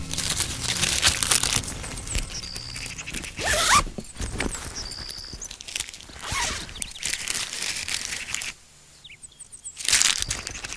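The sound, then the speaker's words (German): Rustling and crinkling as ransom money is stuffed into coarse jute sacks at the Henkersberg, in repeated busy bursts with brief lulls and a short quiet gap near the end; no one speaks. “Dort füllte er das Lösegeld in die Jutesäcke um.”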